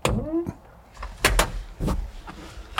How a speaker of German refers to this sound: ich muss hier mal die Tür halb zumachen, weil wir hier so einen Wind auf dem Mikro haben.